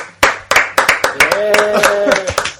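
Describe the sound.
Brisk, steady hand clapping, about four sharp claps per second, ringing out loudly in a short burst of applause while a voice calls out over the middle of it.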